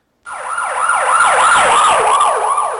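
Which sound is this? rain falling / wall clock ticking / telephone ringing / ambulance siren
ambulance siren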